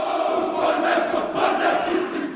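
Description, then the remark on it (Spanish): A crowd shouts and yells together in a loud, continuous roar of many overlapping voices, swelling in waves without pause across the whole stretch. “Con tanto grito así no se concentra nadie.”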